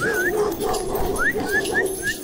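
dog barking and whimpering

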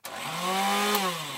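electric kitchen mixer running

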